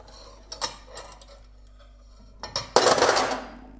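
Dishes and cutlery clink and rattle: a few sharp clatters early on, then a louder, longer burst of scraping and clattering as plates are put in. No one speaks.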